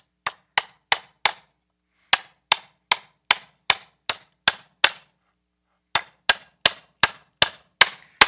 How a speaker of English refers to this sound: So this is the last one. Let's see if I can hammer this nail just right.